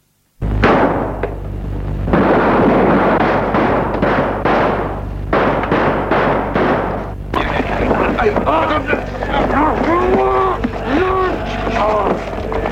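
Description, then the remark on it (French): A loud volley of brief gunshots cracks out in irregular bursts over a low rumble at a farm surrounded by German soldiers, then gives way to raised voices for the last few seconds. “Après quelques brefs coups de feu,”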